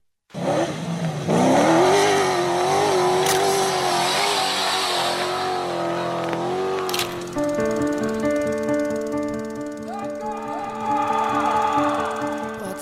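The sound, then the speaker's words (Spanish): An Audi RS Q e-tron rally race car in the Dakar Rally revs hard and climbs through rising pitch, then settles into a loud, steady high-revving drone with strong harmonic whine, continuous for the whole stretch. “Audi participa con el nuevo modelo Audi RSQ y Tron en el Rally Dakar, la carrera más dura del automovilismo.”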